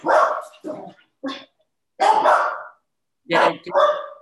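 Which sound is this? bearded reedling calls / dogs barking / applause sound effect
dogs barking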